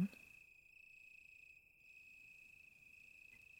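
A steady, high-pitched cricket chorus trills continuously through a quiet night countryside, fairly soft, with no voices or other sounds breaking the calm.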